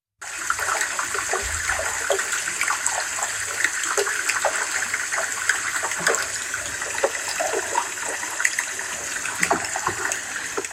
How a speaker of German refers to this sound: Das sind, äh, das ist ein grönländischer Eisberg, mhm. ähm, der aufgenommen wurde von Thomas Rex Beverly. Mhm, aber der klingt schon ziemlich, äh, äh, ziemlich geschmolzen, ne? Genau, der ist eben dabei.